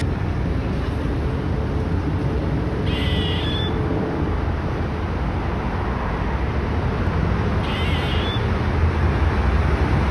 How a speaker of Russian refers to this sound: то есть в рамках нашего подкаста уже есть видео из Лондона, точнее звук из Лондона, где лисы занимаются сексом, и видео, где белка кричит.